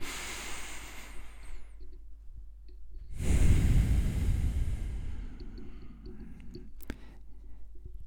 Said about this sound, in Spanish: Una respiración profunda.